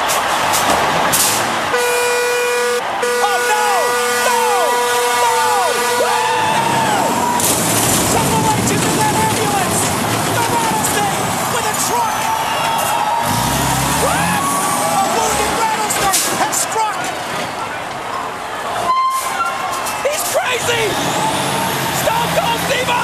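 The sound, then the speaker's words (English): A semi truck driven by Stone Cold Steve Austin rumbles loudly while its horn blares in long sustained honks, with an air brake hiss, amid a noisy crowd and excited commentary voices over the top. “He's is he commandeering that semi?”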